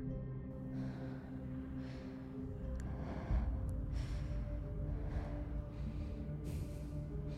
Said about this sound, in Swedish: Bra. Ta nu och andas djupt in och ut. In och ut.